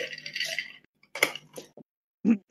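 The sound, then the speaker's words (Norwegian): Ice clinking and being chipped up to make it easier to eat: a rough scraping crunch followed by several sharp, bright clicks and knocks spaced irregularly, with brief quiet gaps between them and no voices. “Nå er det mye klirring i is her. Sorry, jeg måtte bare hakke opp isen som ble lettere å ete.”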